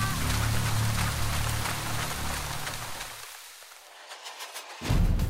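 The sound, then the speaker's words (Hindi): Steady rain pours down in a dense, continuous patter, fairly loud, with a low rumbling undertone that drops away briefly before returning near the end. Rain falling amid crackling lightning. No one speaks. “वो भी किसी खंबे की तरह कड़कती बिजली में बारिश के बीच उस पत्थर को देखने भर से ही किसी भी इंसान का हलक सूख सकता है”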